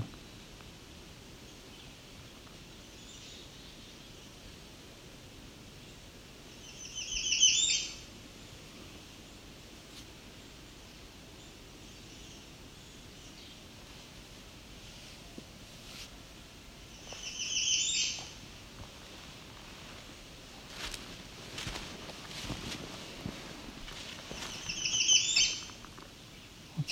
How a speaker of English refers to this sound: Here's our black-capped chickadee. I think there's also a young one here too.